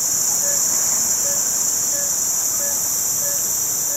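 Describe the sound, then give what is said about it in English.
A dense night-time rainforest chorus in Borneo, heard at a remote campsite after the generator is turned off: a steady, piercing wall of insect buzzing, with a frog-like call repeating at an even beat roughly every second beneath it. Loud and continuous, no voices. “And then suddenly the sort of cacophony of the tropical forest at night hits you.”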